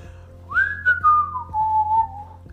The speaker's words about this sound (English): It's kind of fun when you hike to whistle. Do you know how to whistle? yeah, that's a fun thing to do.